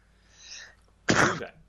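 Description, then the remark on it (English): A single sneeze: a soft breathy inhale builds up, a brief pause, then a sharp, loud burst of explosive air that trails off quickly. “Bless you.”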